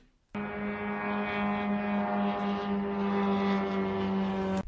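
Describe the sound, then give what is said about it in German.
A loud, steady propeller-engine buzz of an attack drone, about two meters long, flying nearby. It starts abruptly and drones on without a break, rough-toned like a moped engine. “Das sind so zwei Meter lange Teile, die sind recht laut, also die tönen so, wenn die äh, in der Nähe rumfliegen.”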